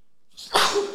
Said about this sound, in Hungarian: Egészségedre kívánok.